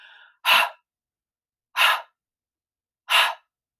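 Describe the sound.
A voice imitates three forceful huffing breaths a man made getting into bed, each a short, breathy burst spaced evenly about a second and a half apart, fairly loud with silence between them.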